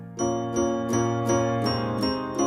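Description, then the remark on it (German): Bright glockenspiel chimes strike in a steady, even rhythm, about seven notes ringing over a sustained tonal backing. Clear, with no voices. “übernahm die Ukulele, eine kleine Gitarre mit nur vier statt sechs Seiten und das Glockenspiel.”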